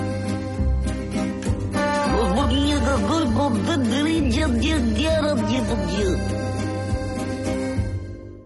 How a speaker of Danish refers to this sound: Og det er altså jinglen, som præsenterer emnet Gerard Depardieu.